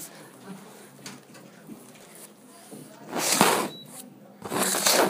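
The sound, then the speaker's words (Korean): An air conditioner switches on: broad, hissing bursts of airflow swell up, with a short electronic beep between them, against a quiet, murmuring room. “에어컨 켰어요, 네.”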